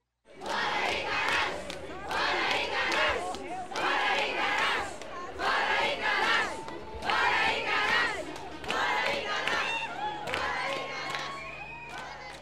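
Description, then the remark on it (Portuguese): A protest of thousands of people in the small town of Correntina, western Bahia, Brazil, on 11 November, demanding the right to water, chants in unison, loud and rhythmic, with repeated bursts of shouting roughly every second or two, voices blending into a dense, sustained roar. “No dia 11 de novembro, uma manifestação reuniu milhares de pessoas na pequena Correntina, de 30 mil habitantes.”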